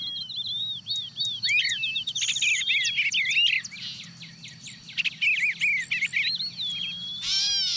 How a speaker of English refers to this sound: Yeah, the wood wood pewee comes in, followed by the song sparrow and, and gray catbird. They start to pile on pretty quickly about this point.